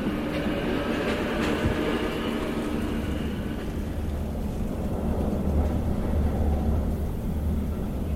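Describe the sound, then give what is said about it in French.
A train rumbles steadily as it pulls out, a continuous low mechanical roar with faint rhythmic clatter and some higher squealing tones, holding at a fairly even loudness with no voices. “Le train part déjà.”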